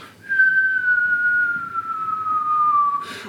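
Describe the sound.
A person whistles a single long tone that slowly slides downward in pitch, imitating the whistle of a small clay figure in an animated series, held steady and fairly loud for about three seconds before a brief breathy noise at the end.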